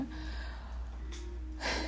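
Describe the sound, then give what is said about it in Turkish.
A deep breath drawn in, a soft airy rush that swells toward the end after a brief shorter intake, with no talking. “Şöyle derin bir nefes alıyorum.”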